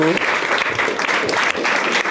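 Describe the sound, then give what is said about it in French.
A studio audience of the show Bistrot applauds steadily, a dense, loud wash of many hands clapping at once that holds at an even level throughout, with no voices standing out. “et en effet, euh, merci de, saluer le public qu'on peut applaudir tous particulièrement, euh, particulièrement puisque cette émission lui doit son succès autant dans ce studio que vous euh, derrière euh, vos écrans.”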